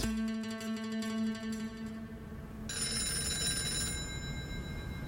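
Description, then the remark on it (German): A telephone in an office rings with a bright, trilling bell tone, sounding twice in close succession with a brief gap between, fairly loud, with a low background hum and no talking. “Er geht gerade einige Unterlagen durch, als das Telefon klingelt.”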